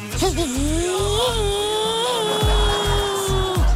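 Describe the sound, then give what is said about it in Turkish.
A voice imitates a racing car engine revving: one loud, sustained whining drone that wavers briefly at the start, holds steady for about three seconds, then drops off, over a low thumping background. “Yıllarca motor sesi bana şarkı gibi geliyor dedim yayınlarımda.”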